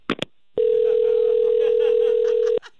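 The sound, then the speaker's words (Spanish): A steady, unbroken telephone tone sounds for about two seconds after a couple of brief clicks as a call drops, then cuts off abruptly. It is loud, with no talking over it. “Ay, perdón, disculpa, parece que se cortó la llamada.”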